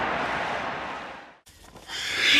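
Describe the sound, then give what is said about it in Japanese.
A dense roar from a large racecourse crowd cheers after a G2 horse race won by Silence Suzuka, loud and sustained. It breaks off briefly, then swells again, brighter and louder, with no clear speech. “歓声がもう、G2 というより G1 のような歓声でしたけれどもね。”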